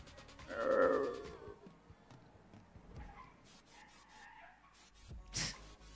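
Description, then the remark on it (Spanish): A car brakes hard at a speed bump outside a house, a loud squealing screech lasting about a second, followed by faint rumbling background noise and a brief sharp burst near the end. “se escuchó ahí el frenazo, que hay un lomo de toro afuera de mi casa, o sea, como en la casa del lado.”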